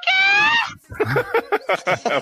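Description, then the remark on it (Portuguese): A voice lets out a short, shrill imitated scream, high and wavering for under a second, then breaks straight into rapid talking. “Na hora que entrasse a drag lá com o vestido todo babado, ela gritasse.”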